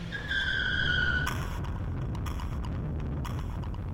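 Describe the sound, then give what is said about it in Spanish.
A car with tinted windows tears away at high speed with a sharp, high tire screech lasting about a second, followed by a loud engine roar that stays steady until the end. “Vi que voltearon a verme e inmediatamente el coche arrancó a una velocidad infernal.”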